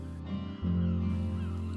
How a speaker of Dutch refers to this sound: Wolken drijven voort, vogels fluiten naar elkaar, golven breken en in het westen verdwijnt het licht. Alles zoals altijd.